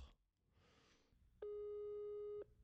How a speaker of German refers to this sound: Möchte sich Fräuleinchen vielleicht ans Telefon bequemen? Nein. Es klingelt weiter.